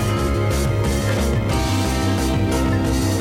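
Instrumental band music plays steadily, with a pulsing bass line, layered harmonic tones and rhythmic percussion, fairly loud and continuous with no voices.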